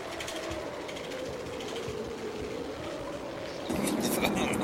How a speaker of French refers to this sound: C'est son vélo.